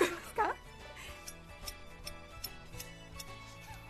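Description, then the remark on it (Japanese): A gyuto, a long-bladed, very sharp butcher's knife made for cutting meat, taps lightly against a hard surface, a series of six or so crisp, evenly spaced clicks, fairly soft, after a brief voice at the start. “牛刀とても怖いこの音ですよ”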